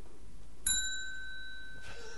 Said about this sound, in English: Had to get the bell in one last time. Had to yell at the bell end one last time. Why do you have that here? uh, it's it's the move on segment bell.